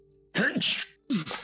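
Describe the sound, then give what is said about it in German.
Two sneezes in quick succession, each a sharp voiced intake breaking into a loud, breathy burst, with a brief pause between them and no talking. “Gesundheit. Gesundheit. Danke.”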